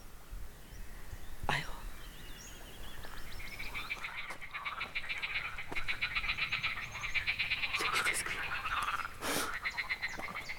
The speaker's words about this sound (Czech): Slyším hodně žáb.